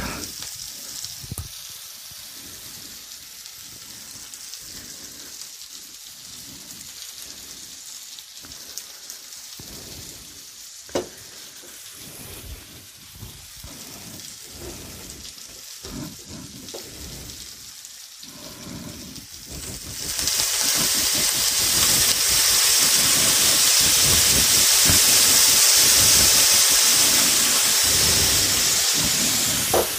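A pan fries steadily with scraping stir noises, then the sizzle suddenly surges into a loud, bright, sustained hiss as one to two tablespoons of rice vinegar are poured in to deglaze. No one speaks.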